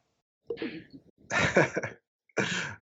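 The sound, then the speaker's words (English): A loud sneeze: a short voiced intake, then a forceful breathy burst, followed a moment later by a second sharp sneeze. No talking. “God bless you.”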